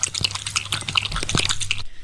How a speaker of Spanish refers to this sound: Vamos a escuchar el sonidito. Es un perro tomando agua.